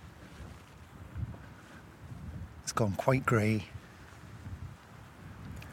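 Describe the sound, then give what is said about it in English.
Gusty wind buffets the microphone in a steady low rumble that swells and dips throughout, outdoors at the Callanish site on Lewis, with a man speaking briefly over it partway through. “It's still extremely windy.”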